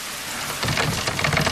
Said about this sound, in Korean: 어? 어, 비가 오네? 어, 아, 하필 또 오늘따라서.